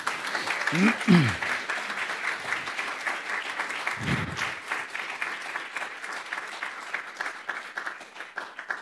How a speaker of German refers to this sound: ja, ich glaube, das ist noch ein Applaus wert, glaube ich auch.